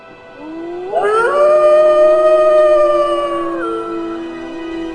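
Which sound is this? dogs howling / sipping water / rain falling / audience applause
dogs howling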